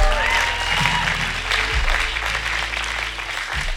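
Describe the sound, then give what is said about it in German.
Sustained audience applause for the band, a dense steady clatter of many hands clapping at once, fairly loud and continuous, with a low hum underneath and no clear speech. “habt ihr noch einen Applaus für die Band? Sie machen einen tollen Job.”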